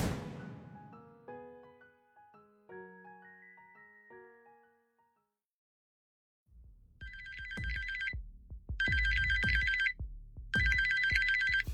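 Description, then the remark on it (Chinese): A mobile phone ringtone plays for an incoming call: a short run of melodic chime notes fades out, then after a pause a thumping beat starts with three bright, buzzy bursts of high ringing. No one speaks. “手机响了三声，是西善的电话。”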